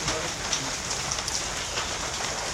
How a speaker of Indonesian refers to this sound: Obrolan di kala di kala hujan, hujan yang nggak berfaedah ini.